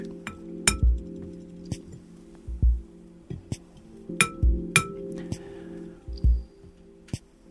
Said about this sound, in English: So I'm doing it right now. And then I try to invite the bell to sound again by um, touching gently by wooden stick.